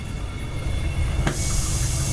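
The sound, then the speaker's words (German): A Bunsen burner is lit by a researcher and a colleague, who use the flame to make metal nanoparticles for sensor material: one sharp click cuts through a steady low rumble, then a brighter, continuous hiss of gas flame rises and holds to the end. “Wie sie das macht, zeigt sie mir vor einem Bunsenbrenner zusammen mit einem Kollegen. Jetzt ist äh, die Flamme anzünden.”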